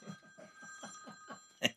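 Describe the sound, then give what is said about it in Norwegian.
A phone rings quietly during a radio programme, a steady electronic tone that pulses in a quick, repeating pattern, ending in a brief louder burst. No one speaks. “Er det noen som ringer? Må vi ta den?”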